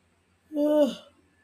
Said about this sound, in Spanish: Es que lo peor es que puedo editar este bostezo y no lo hago porque no me da la gana.